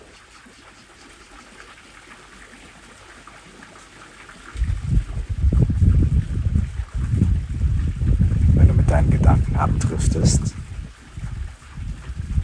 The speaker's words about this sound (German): dann lass dich von dem Wind, den du hier während der Meditation in der Aufnahme hörst, immer wieder daran erinnern, zu deinem Atem zurückzukehren.